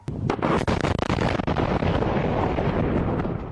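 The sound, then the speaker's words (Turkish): A series of loud explosions with sharp cracks and booming blasts in rapid succession at first, then a sustained roaring rumble of continuing detonations and debris: an ammunition depot blowing up after a forest fire reached Greece's second-largest air base, home to an F-16 fleet. “F-16 filosunun bulunduğu üste cephanelik havaya uçtu.”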